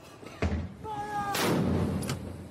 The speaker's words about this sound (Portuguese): 24 horas depois do anúncio da morte do príncipe Philip, o marido da rainha foi homenageado com uma salva de 41 tiros de canhão.